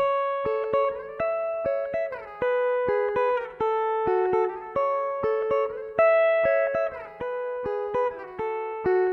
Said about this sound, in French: il y a un son de guitare qui est ressorti. rien de neuf, mais ce truc-là me parlait. Et j'ai sorti ce son de guitare, je l'ai isolé. Et là, j'ai rajouté la tierce de la guitare.